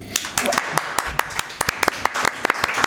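An audience applauds for the wine princess: a dense, irregular patter of many hands clapping at once, bright and steady at moderate loudness for about three seconds.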